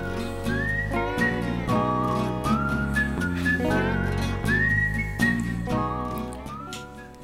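A short jingle with a clear whistled melody gliding over steady bass and rhythmic backing, with sustained high notes and brief percussive accents, loud and continuous with no talking.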